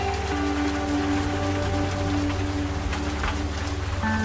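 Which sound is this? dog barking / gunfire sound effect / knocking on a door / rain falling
rain falling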